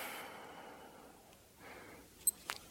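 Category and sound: human body sound, deep full exhalation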